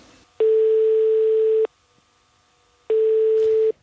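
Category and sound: signal or alarm, telephone ringing tone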